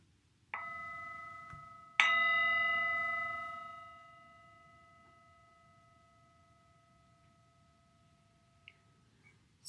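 A singing bell is struck twice at the end of a meditation, a soft strike followed a moment later by a louder one, its clear metallic tone ringing out and slowly fading over several seconds.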